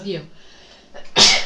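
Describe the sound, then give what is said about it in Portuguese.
A single sharp sneeze bursts out loudly near the end, preceded by a short inhaled buildup and a brief vocal sound at the start. “Saúde. Saúde, obrigada.”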